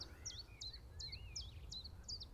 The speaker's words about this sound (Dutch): Ja, tjiftjaf. Ja, daar hebben we hem. Oké, dat is hem. Onomatopee, roept zijn eigen naam. Net als de koekoek.